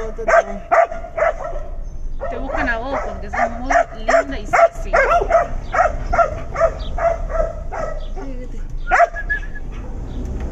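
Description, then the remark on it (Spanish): A dog barks repeatedly in short, sharp, loud bursts, with a few higher yips mixed in, while people talk over it throughout. “Tu perro está.”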